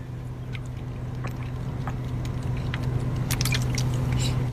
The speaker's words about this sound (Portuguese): Deixa eu beber uma água aqui.